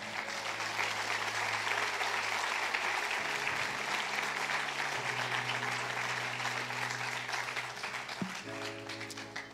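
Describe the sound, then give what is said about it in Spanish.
A crowd claps steadily for the full length, a dense, even wash of applause for the Lord with no break, while low sustained keyboard-like tones hum beneath it. “No se merece un aplauso a nuestro Señor.”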